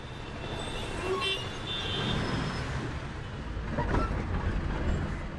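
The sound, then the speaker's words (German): An old Ambassador taxi, without power steering or air conditioning, rumbles and clatters steadily, a continuous rattling engine-and-body noise with traffic sounds around it and no one speaking. “Er poltert, rattert, klappert.”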